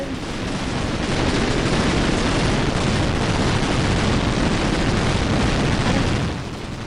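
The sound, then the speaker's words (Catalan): A dense, continuous barrage of firecracker blasts from a tronada, loud, crackling and booming without pause for several seconds before easing off at the end. No voices. “I amb el so de la tronada rebem la següent trucada.”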